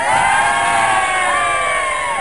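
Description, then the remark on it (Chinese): A crowd cheers and shouts loudly, with whoops and high yells rising over a steady wash of applause, sustained throughout the short burst without any speech, given by the host of the radio talk show Kaixin Taxi on Huoli FM 92.6 to a listener. “这位朋友，虽然你这种行为我嗤之以鼻，但是对于你敢于承认自己啊，我给予你掌声和呐喊声。”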